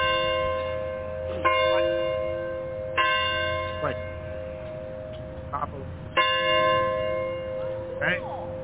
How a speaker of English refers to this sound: He had me listen to the bell for two days. All I hear was wedding bells.